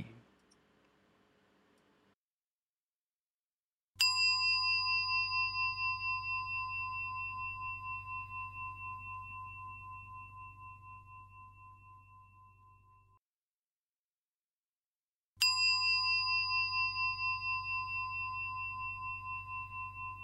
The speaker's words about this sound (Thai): เริ่มต้นกิจกรรมวันนี้ อาตมาอยากชวนทุกท่าน ฟังเสียง ระฆังด้วยกันครั้งหนึ่ง ลองตั้งใจฟังเสียงระฆังเสียงนี้ด้วยกันนะโยมนะ ลองฟังว่าเสียง ระฆังมันเป็นยังไง